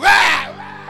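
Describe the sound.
A single loud, hoarse shout imitating an American football team's war cry before competing bursts out, then trails off into a strained, fading holler within a second.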